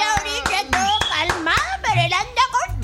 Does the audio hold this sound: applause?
yes